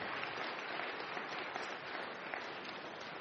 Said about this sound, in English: Yeah, you know, it feels like we should applaud for that. I agree.